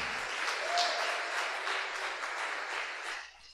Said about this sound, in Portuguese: Por sinal, a equipe de servo, ó, vamos dar uma salva de palmas para Jesus, irmãos.